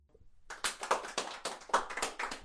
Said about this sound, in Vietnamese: Trùm sĩ là người đầu tiên vỗ tay khi màn song tấu kết thúc, rồi ai nấy cùng vỗ tay theo